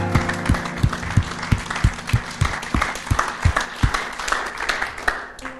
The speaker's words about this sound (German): Lasst uns der Person einen fetten Applaus geben.